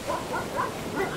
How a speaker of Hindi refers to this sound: थोड़ा और आगे गई तो ठीक उसके सपने की तरह उसे अपने पीछे भागते हुए कुत्तों की आवाज सुनाई दी